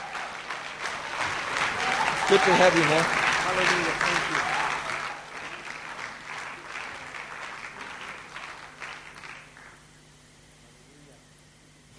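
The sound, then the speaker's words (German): A Franconian crowd applauds warmly and heartily to welcome a speaker onto the stage, dense clapping that swells and then gradually thins out and fades, while a man's voice speaks briefly over the clapping. “wenn wir ihn nochmal mit einem ganz kräftigen fränkischen Applaus willkommen heißen in unserer Mitte.”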